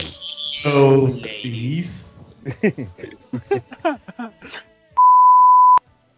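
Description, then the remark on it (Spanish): Voice-like vocal sounds and short chattering bursts are followed by a single loud, steady electronic beep, a WhatsApp message notification tone, held for just under a second and cut off sharply. “no ahí, ahí WhatsApp, ahí WhatsApp, Ahí WhatsApp”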